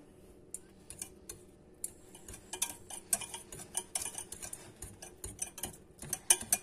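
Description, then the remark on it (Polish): A spoon stirs ground ginger (about two-thirds of a teaspoon) and pepper into a glass of water, making quick, light clinks and scrapes in an uneven rhythm that grows busier toward the end, with no one talking. “I teraz to wszystko mieszamy.”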